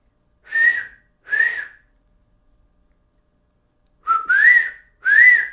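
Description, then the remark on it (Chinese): A person whistles an imitation of an eagle's call: four loud, shrill whistled cries with a sliding pitch, two in quick succession, a pause of a couple of seconds, then two more. “老鹰的叫声”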